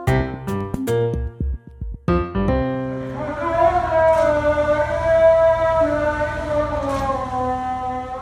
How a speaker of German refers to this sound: Und das, was ihr da gerade hört, ist der Muezzinruf in Doha, der Hauptstadt von Katar.